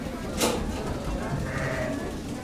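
Sheep bleat on the Seguin sheep farm at 5 p.m. as they get ready to be milked, one wavering cry rising over a steady background hum and shuffling noise, with a brief sharp rustle near the start.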